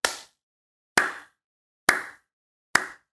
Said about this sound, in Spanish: Pausa para aplauso lento.